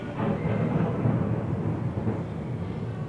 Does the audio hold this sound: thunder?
yes